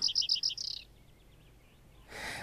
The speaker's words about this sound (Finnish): Pajusirkku istuu jämäkästi pajupensaikon latvuksessa ja laulaa vaatimatonta säettään muiden kevätlintujen konsertissa.